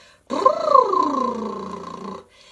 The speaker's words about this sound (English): But one of the things that we do as something to practice is a lip buzz. And the lip buzzes are amazing because they tell us how our airflow is doing.